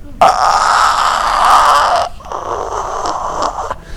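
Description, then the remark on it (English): A voice imitates stridor, the noisy breathing of a person with partial airway obstruction: two long, harsh, wheezy breaths with a raspy high-pitched whistle. The first is louder and lasts about two seconds, and the second is slightly softer. No speech accompanies them. “But if they've got a really weak cough or if they're stridorous, right?”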